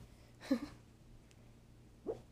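Two soft, brief snuffling snores from a sleeping female dog, like small whimpers, spaced well apart against a quiet, hushed background with no talking.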